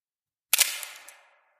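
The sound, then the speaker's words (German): A single crisp camera shutter click, isolated after silence, as someone presses the shutter release of a zoomed-in camera to photograph a figure standing by a door, with a short mechanical rattle trailing off over about a second as the mirror and shutter settle. “Vorsichtig hob John die Kamera an sein Auge und zoomte langsam an den Hinterkopf der Gestalt”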